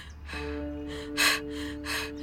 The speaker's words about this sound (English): Are you okay? You breathing mighty hard.